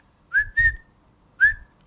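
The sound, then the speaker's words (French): A whistle sounds three times, two short blasts close together followed by a third after a pause, each clear and fairly loud with a slight upward pitch bend. “Gary Cooper a eu l'Oscar du meilleur acteur pour Le Train sifflera trois fois”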